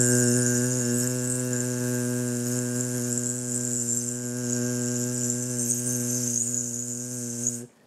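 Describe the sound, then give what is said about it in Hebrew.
A voice imitates a mosquito buzzing inside the ear of Titus, with one long, steady, fairly loud buzzing "zzz" held for about eight seconds before cutting off abruptly. “נכנסה יתוש לתוך האוזן של טיטוס, והייתה עושה לו בזזז...”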